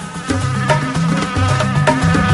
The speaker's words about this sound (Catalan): Ui. Un mosquit sí.